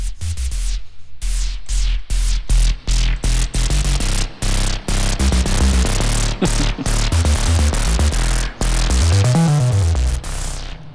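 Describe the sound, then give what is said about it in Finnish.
Loud synthesizer triangle-wave tones layered with hissy noise, played as a rapid series of choppy, stabbing notes, ending in a swooping pitch bend that dips and climbs again. No voices. “Sitten pistetään siihen vähän kohinaa mukaan ja siirrytään kolmioaaltoihin.”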